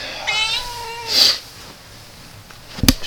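A cat lets out a drawn-out, wavering meow, followed by a brief sharper cry, then a quiet pause and a sudden thump near the end.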